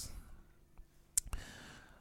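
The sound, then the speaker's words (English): A few sharp, isolated clicks of keys on a computer keyboard as someone types a Google search to look up song lyrics, irregularly spaced over quiet background, with no voices. “I'm typing this in Google.”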